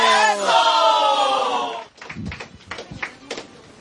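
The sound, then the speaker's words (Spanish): A loud, drawn-out shouted voice gives way to scattered, uneven clapping from an audience, sharp but thin rather than a full ovation, as a speaker is introduced at a celebration of the 77th anniversary of a peasant community's recognition in Limatambo district. “para quien pido fuertes aplausos, que vengan los aplausos.”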